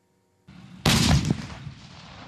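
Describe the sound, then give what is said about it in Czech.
A single heavy cannon blast from a Leopard 2A4 battle tank, a German gift to the Czech Republic, erupts loud after a moment of low outdoor rumble, then fades into a rolling, echoing boom. “Leopard 2A4 Starší bojový tank ale pořád větší přesnost střelby a ochrana posádky než u T-72.”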